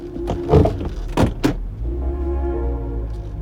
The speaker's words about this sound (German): steigt zurück ins Auto.